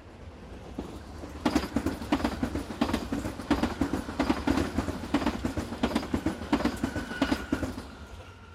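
A train rolls steadily along the rails, its wheels beating out a regular clickety-clack over a low, continuous rumble, fairly loud, with no voices.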